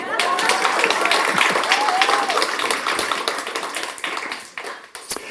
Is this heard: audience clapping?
yes